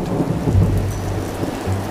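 Steady rain hisses across the whole stretch while deep, rolling thunder rumbles low underneath, swelling midway and again near the end. The storm sounds close and fairly loud, with no voices.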